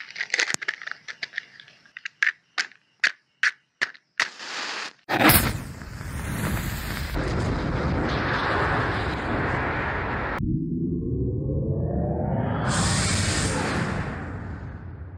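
A rapid series of short electronic beeps counts down, then a massive roaring blast erupts and rumbles on steadily, joined near the end by a rising whooshing tone as if something is lifting off.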